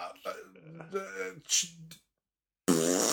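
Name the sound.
imitated fart noise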